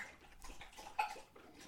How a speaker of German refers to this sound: der Hund trinkt